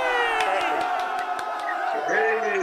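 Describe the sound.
An audience claps and cheers, with a steady, rhythmic patter of hand claps under a dense wash of shouting and whooping voices that stays loud throughout.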